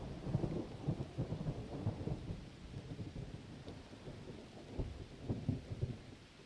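A thunderstorm with low, rolling thunder rumbling continuously over steady rain, the deep booms swelling and fading in waves, full, with no voices.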